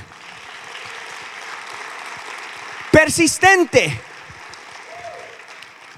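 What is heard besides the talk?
audience applause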